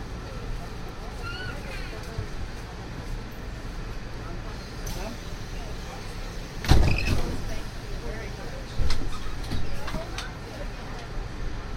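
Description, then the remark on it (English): A steady low mechanical hum fills the monorail interior, then a heavy thud near the middle as the sliding doors shut, followed by a rising motor drone as the monorail departs toward the Magic Kingdom. “The monorail will depart momentarily.”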